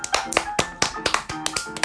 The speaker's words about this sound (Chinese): 你已经好了，好棒，给他拍拍手，